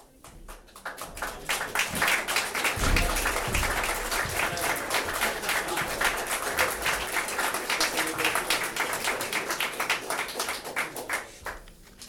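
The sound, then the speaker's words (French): An audience applauds steadily for about ten seconds at the start of a harp-and-clown concert show, a dense, even wash of many hands clapping that swells in quickly and tapers off at the end, with no talk over it. “Nous avons choisi cette forme de spectacle parce que c'est la seule où on est applaudi d'avance.”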